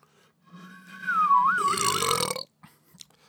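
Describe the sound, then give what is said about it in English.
A single long, loud burp after chugging a bottle of Jarritos soda, starting with a squeaky, wavering tone and swelling into a raspy, rumbling blast before cutting off abruptly, followed by a couple of faint small sounds. “And I didn't drink enough for a burp, but.”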